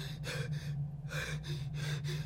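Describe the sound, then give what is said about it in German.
Rapid, panicked gasping breaths, four or five harsh airy pulls in quick succession, fairly loud over a steady low hum, with no talking. “Langsamer ausatmen. Achte auf meinen Atem. Wir atmen zusammen.”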